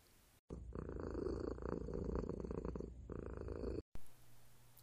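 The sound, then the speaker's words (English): A cat purrs loudly, a steady rumbling with a gentle rhythmic pulse that lasts about three seconds on its own before cutting off abruptly. “I grab my drink, I gather my cats.”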